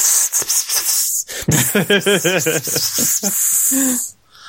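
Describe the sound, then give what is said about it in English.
A person imitates a snake with a loud, sustained breathy hiss, broken midway by a run of short voiced, warbling pulses, before stopping abruptly near the end. “um, which is like the best uh, snake vocalization.”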